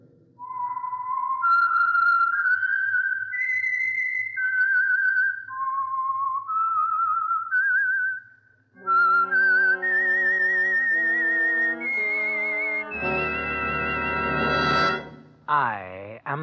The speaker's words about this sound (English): Yes, the Signal Oil Program. The Whistler. That whistle is your signal for the Signal Oil Program, The Whistler.